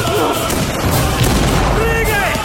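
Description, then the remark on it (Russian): A loud, heavy explosion with a deep rumbling boom that stays dense for the whole moment, as a mortar shell hits the turret of a Soviet tank, with faint voices mixed into the din. “Выпущенный из миномета снаряд попадает в башню советского танка, отброшенный взрывом солдат, сидящий за башней танка, вращаясь в воздухе, падает на землю.”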